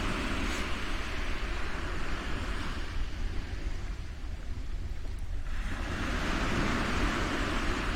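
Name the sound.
ocean waves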